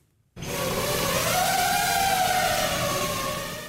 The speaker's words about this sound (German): Keine Sorge, hier nähert sich nicht etwa ein Schwarm Moskitos. Vielmehr bewegt sich Leonardo, eine Legs Onboard Drone, eine Drohne also, die auch Beine an Bord hat.